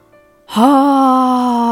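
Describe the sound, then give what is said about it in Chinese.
A human voice imitates the low roar of Allen, a crocodile in a story: after a brief quiet moment, one loud, sustained, steady moaning tone begins and holds for over a second. “艾伦大吼着，发出低沉的声音”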